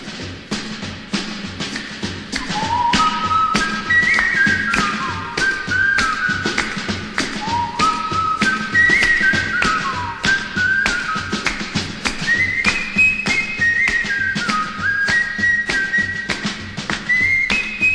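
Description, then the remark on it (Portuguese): A clear whistled melody from a song made entirely of whistling, with stepping, repeating phrases, played over a steady rhythmic backing with tapping percussion, bright and prominent throughout. “E aí eu lembrei de uma música que era toda de assobio, né?”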